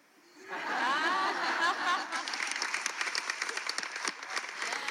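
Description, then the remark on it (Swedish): A crowd bursts into bright, rippling laughter that quickly blends into loud, sustained applause, many hands clapping densely for several seconds, full. “Nu tar vi en liten variant och det är ett härligt porlande skratt som övergår i en lika maffig applåd.”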